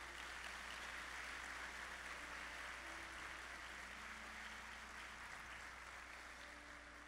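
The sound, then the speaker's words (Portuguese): An audience at a church service claps for God in a steady, dense wash of applause that holds evenly for about seven seconds, with faint sustained tones humming underneath and no voices on top. “Mesmo no escuro, dá uma salva de palmas a Ele.”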